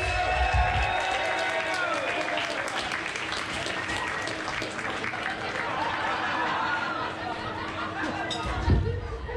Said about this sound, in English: Please keep the applause coming for the one and only